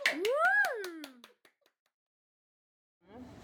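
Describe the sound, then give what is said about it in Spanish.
A brief burst of rapid hand claps with a swooping whoop-like tone over them, fading out after about a second; a voice starts talking after a short silence. “¡Aplauso! ¡Bravo!”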